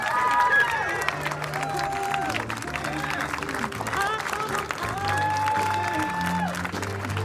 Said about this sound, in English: Don't stop clapping.